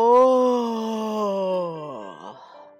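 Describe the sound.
A voice acts out a big, drawn-out yawn of an old sea turtle in a story: a loud, steady moaning tone that slowly sinks in pitch over about two seconds, then wobbles and trails off into a breathy finish.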